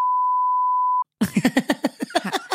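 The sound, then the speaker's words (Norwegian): A steady, mid-pitched censor bleep covering a name holds for about a second, cuts off abruptly, and is followed by a person talking in quick, lively syllables. “ja, men altså det, det må beepe ut navnet.”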